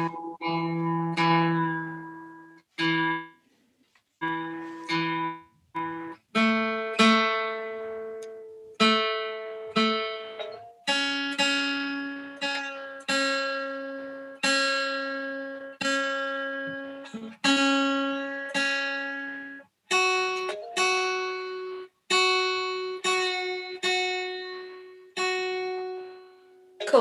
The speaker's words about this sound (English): It's nice to hear a guitar being tuned mm. because, like, we we sort of oh, tend not we tend not to do it these days because we're just playing on our own. You know, no one's in tune with anybody else, so it's good to hear it tuned.